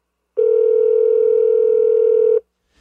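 A single steady electronic ring tone from an outgoing phone call placed on speakerphone, loud and unbroken for about two seconds, then cutting off into near silence.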